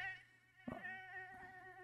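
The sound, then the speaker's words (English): A mosquito's thin, steady whine drones on without a break, fairly faint, with a brief soft knock partway through and no voices. “Oh, mosquitoes.”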